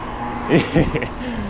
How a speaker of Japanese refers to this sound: ちょっとバイバイクと車が多いんで道を外れますね